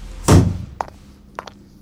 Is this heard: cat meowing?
no